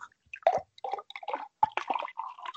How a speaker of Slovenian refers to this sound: Evo, malo za intermezzo, no, danes ni pera, ampak tako se sliši, eh, kako iz eh, flaše v kozarec priteka domač sviček.